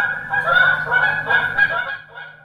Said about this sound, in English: Are there more than there used to be? I see dozens of geese every day along the Greenbelt. I end up having to dodge them on my bike.